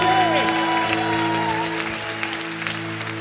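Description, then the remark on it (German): A church audience gives God applause at a resurrection celebration, clapping steadily over sustained musical tones, the applause a dense, even patter that fades slightly toward the end, with some voices mixed in. “Und jetzt geben wir Gott noch einen Applaus.”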